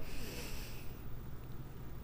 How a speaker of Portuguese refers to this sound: Você respira, trabalhar em excelência na respiração é respirar em cinco segundos. Você respira, ó.